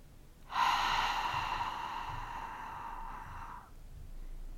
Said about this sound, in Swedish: Stanna på toppen av andetaget, räkna till två, ett, två och andas sedan ut genom munnen samtidigt som du räknar till tre.